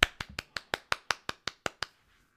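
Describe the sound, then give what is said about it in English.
A quick, steady run of about ten sharp hand claps of praise, crisp, each one snapping off cleanly before the next, then silence. No one speaks. “Everybody give a hand clap of praise.”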